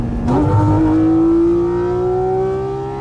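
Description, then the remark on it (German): A relatively light 500-horsepower sports car engine revs loudly and climbs steadily to a high, sustained whine while shifting through the gears, continuous for a few seconds with no voices over it. “und die Drehzahl geht einfach nur irrwitzig hoch, aber es ist immer noch nicht so, dass man sagt, okay, das war jetzt zu viel Drehzahl, das ist wirklich irre digital, so bing, bing, bing, bing, bing und dann dritter Gang und dann geht's ab.”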